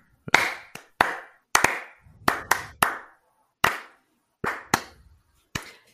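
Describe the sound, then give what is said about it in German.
A single person claps hands about a dozen times in an uneven, unhurried rhythm, each sharp clap clear with a short ringing decay, and no one speaking. “Ja, aus betriebswirtschaftlicher Sicht kann man da, kann man da auch mal wieder klatschen.”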